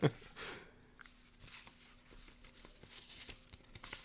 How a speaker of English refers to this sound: Now I'm gonna shuffle these the best that I can. Here, here, see that? Hear that? That's that's the shuffle. That's me shuffling these these these cards together.